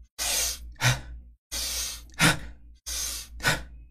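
Three breathy cycles of a person demonstrating a breathing pattern, a long, deep inhale followed by a short, quick exhale, repeated in a steady rhythm with brief pauses between them.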